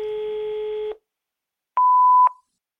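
A telephone line tone: a steady, fairly loud electronic tone for about a second, a short silence, then a higher pure tone bracketed by clicks. No voices.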